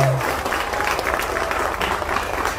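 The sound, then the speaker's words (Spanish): A crowd claps steadily and loudly for miners as they come out of the mine, a dense wash of applause lasting the whole clip with a few cheers and voices mixed in. “Oigan aplausos, que recibieron los mineros justo al salir de la mina.”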